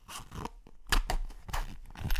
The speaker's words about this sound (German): Ein Reißverschluss? Oh, deiner oh, sehr Brieftasche? Gut, sehr gut, sehr gut. Äh, nee, nee, ist der Reißverschluss von so einem Kopfhörer-Case. Die hatte ich eben ausgepackt und angeschlossen. Das hätte ich ja raushören müssen.